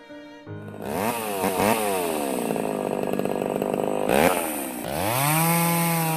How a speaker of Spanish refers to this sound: A lo lejos se escucha cómo los humanos talan los árboles.